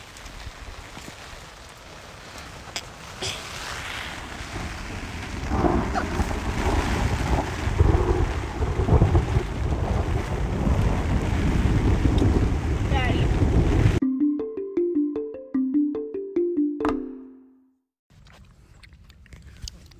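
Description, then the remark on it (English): Loud storm wind roars and gusts steadily, with a rushing, surf-like wash. It cuts off abruptly and gives way to a brief rising and falling run of musical tones. “After the storm passes, we'll duck out and uh, whip up some macaroni and cheese.”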